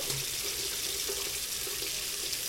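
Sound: water running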